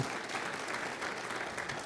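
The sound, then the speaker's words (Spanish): A church audience applauds as an offering to the Lord Jesus, a dense wash of many hands clapping at an even, sustained level for the full two seconds, with no voices standing out. “Le damos una ofrenda, aplauso al Señor Jesús.”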